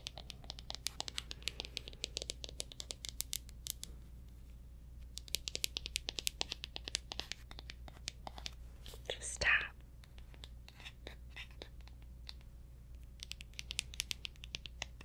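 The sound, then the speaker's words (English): Soft tapping and pattering made by hand to mimic raindrops dropping on a window, a quick irregular patter in short bursts with a few louder taps, amid hushed whispering. “can sound like raindrops. Raindrops dropping on your window.”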